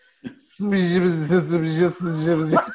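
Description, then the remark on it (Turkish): A single voice makes a continuous, wavering garbled babble for about two seconds, imitating how Turkish speech sounds to a listener, like distorted, static-like speech without real words, ending with a short rising squeak. “Bana duyduğun sesleri ağzınla yapsana dedim.”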